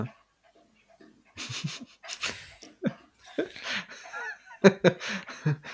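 A female dog that has come into the room drinks slowly, its tongue making irregular wet lapping splashes in short bursts, with soft breathy panting and a faint chuckle mixed in.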